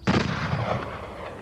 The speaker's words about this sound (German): Entfernt hört er plötzlich eine Männerstimme rufen. Direkt danach einen Schuss.